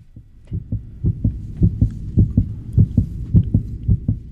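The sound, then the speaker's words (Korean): A father's steady heartbeat thumps in a regular low rhythm, its paired beats repeating about twice a second, muffled with no voices over it. “아버지의 심장 소리.”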